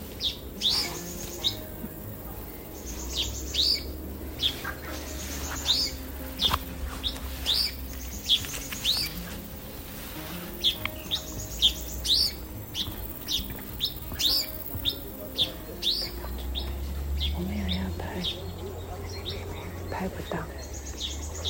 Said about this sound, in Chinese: 各种鸟叫声，还有青蛙。你看。